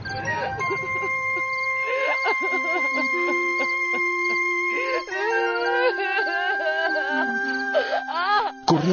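A woman, lying in a pool of blood after running into a glass wall, cries and moans in pain, drawn-out wavering wails that carry on without pause, loud, rising into a sharper cry near the end.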